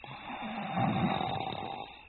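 A man sleeping deeply in the room across the hall of a dark, silent house snores, one long rasping breath that swells in the middle and fades, heard alone with no talking.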